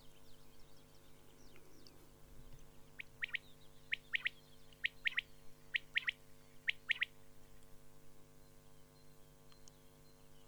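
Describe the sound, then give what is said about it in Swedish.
A common quail calls repeatedly in short, sharp three-note bursts, evenly spaced, clear and far-carrying, over a quiet, steady background hum, with no voices. “Det här lätet är vittljudande, Det hörs alltså jättelångt.”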